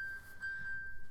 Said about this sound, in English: And oh, uh, that's my phone. I'm gonna turn that come off.